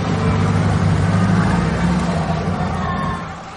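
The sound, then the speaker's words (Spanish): A black car's engine rumbles steadily with a low hum and broad road noise as it crosses paths with a red car on reaching the other shore, then fades off as it drives past. No one speaks. “llegan a la otra orilla, el coche negro se cruza con el rojo en el que viaja la dama francesa.”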